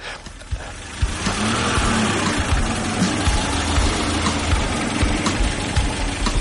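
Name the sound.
car engine idling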